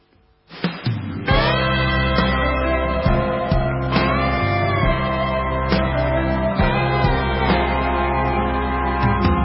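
After a moment of near silence, a song starts up with a swelling instrumental intro, then settles into full, steady, loud music with rich sustained chords and regular beats. No singing is heard yet.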